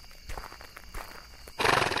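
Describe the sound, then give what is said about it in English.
A few soft, scattered thumps give way to a loud, rough neigh from Gunpowder, Ichabod's horse, that bursts out suddenly and carries on to the end. No one speaks. “Wake up, gunpowder, you lazy animal. Get up this instant!”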